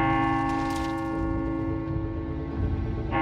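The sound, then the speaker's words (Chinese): A single deep bell toll rings out as a countdown ends and hangs in the air, its low, humming resonance sustaining steadily for a few seconds with no voices. “当时间倒数停止的时候。他们听到了一声钟响”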